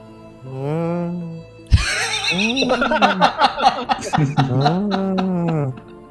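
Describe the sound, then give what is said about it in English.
A person imitates a calming cow call, starting with a low, drawn-out moo, then a burst of wavering, whinny-like vocal noises, and ending with another long moo. The voice is fairly loud. “create sort of like another cow's sound that is a calming”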